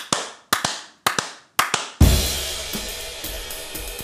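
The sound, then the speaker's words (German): Two show hosts clap their hands on a count of four, four sharp, single claps in a steady, evenly spaced count, then a dense, sustained wash of sound abruptly takes over. No one speaks. “Gut, aber können wir erstmal klatschen, bitte?”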